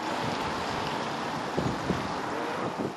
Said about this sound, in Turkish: İspanya ise Bela kasırgasıyla sarsıldı. Kasırga ülkenin en büyük adası Mallorca'yı çok sert vurdu. Dev dalgalar ve sert rüzgarlar ağaçları da yerinden söktü.